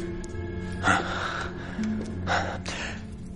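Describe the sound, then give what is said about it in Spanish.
Vesper, a woman in a compartment, screams in a James Bond scene: two strained, breathy bursts about a second and a half apart, set against a steady low hum with no talking. “Bond mira hacia el compartimento donde se oyen los gritos de Vesper.”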